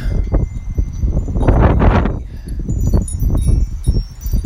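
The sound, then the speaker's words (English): Wind blows outdoors in gusts on a Thursday night in California, a loud low rumble buffeting the microphone, swelling strongest midway and rustling throughout, with no voices heard. “Pretty nice and windy California. Windy Thursday nights.”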